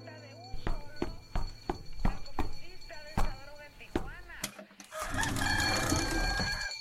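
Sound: rooster crowing and clucking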